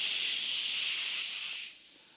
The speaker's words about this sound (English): In fact, how about if we get interactive for just a moment? Can everybody do this with me? Everybody lock in with me and just do this. Shh. Let's try it again. Everybody a little louder. Shh.